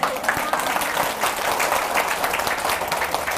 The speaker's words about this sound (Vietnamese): vỗ tay hồ hởi như thế có nghĩa là rất dễ